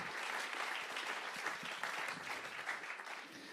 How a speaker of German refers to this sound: Und jetzt können wir wirklich mal zusammen klatschen. Ich finde das nämlich ziemlich, ziemlich nice.